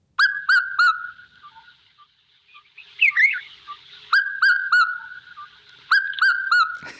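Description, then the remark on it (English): A recording from the Cecil app of a red-chested cuckoo (Piet-my-vrou) calling its loud, ringing three-note phrase three times, each burst clear, with a brief warbling bird sound in the pause between, and no talking. “the Africans people say something else, like Piet-my-vrou, but we are saying pesgom corn”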